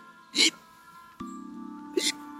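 Two short, sharp hiccups about a second and a half apart, clear, with a faint steady hum in the background between them.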